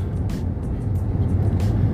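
Steady low engine rumble and road drone fill a moving car's cabin, continuous and fairly loud, with a few faint hissy bursts riding on top and no one talking.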